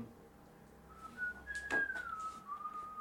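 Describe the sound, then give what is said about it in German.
Someone whistles from upstairs, a short, sliding melody that rises and then falls. It starts about a second in and sounds soft, with a faint knock partway through. “er aber zur Treppe kommt, hört ihr von oben ein Pfeifen.”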